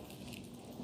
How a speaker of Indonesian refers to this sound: Hujan deras ya, terdengar ya.